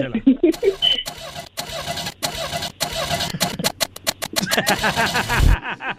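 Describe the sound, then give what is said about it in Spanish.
A voice imitates a broken-down car engine cranking without catching, with repeated sputtering bursts in an uneven rhythm, loud, ending in a short low thump. “Y, y, y, y, entonces vamos a, aquí a dramatizar cuando el carro no encendía porque estaba descompuesto, ¿eh?”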